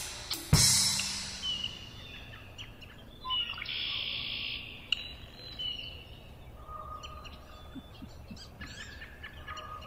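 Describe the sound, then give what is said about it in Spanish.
Many wild birds sing and call over one another in a dawn chorus, with bright chirps, trills and whistles over a steady outdoor ambience, opening with a sharp call. “Así suena un coro salvaje al amanecer.”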